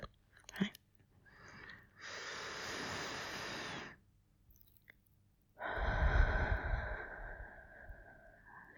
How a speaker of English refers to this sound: How about some more of that deep breathing? Hmm? Let's deep breathe some more. I find that makes me sleepy. Just breathing deeply, like you do when you're asleep.